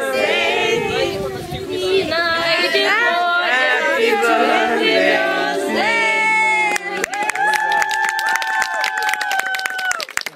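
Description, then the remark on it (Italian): A crowd of Ukrainian children at a party in a private house in Collestrada, Italy, shouts and cheers loudly, many high voices overlapping and rising together, then rapid clapping breaks out under sustained cheering in the final few seconds. “oggi c'è una festa di due bambini dove alcuni animatori, abitanti della, del, del borgo hanno organizzato questo meraviglioso momento di gioia.”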